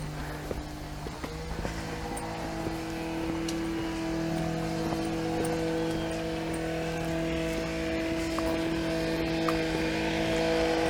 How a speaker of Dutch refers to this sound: Oké, okay, die hebben daar die eh, kettingzaagachtig of een grasmachine.